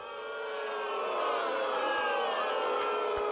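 A large crowd boos loudly and steadily, many voices blending into a sustained, swelling wave of disapproval that holds for a few seconds with no individual speech.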